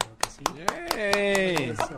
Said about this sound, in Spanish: por favor, al cual pido un aplauso.